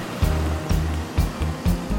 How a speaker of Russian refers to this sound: Теплоход, попыхивая, отчаливает и двигается в сторону Хабаровского моста, почти четырехкилометрового пути через Великую Дальневосточную реку.